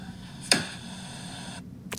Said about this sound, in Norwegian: Det er lyden av å lukke PC-en for ferie!